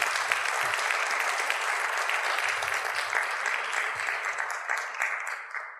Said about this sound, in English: And there are lots of other people who added their input, but these are the people who were really willing to come up here and speak. So I actually give them a warm round of applause, folks, as they come on up.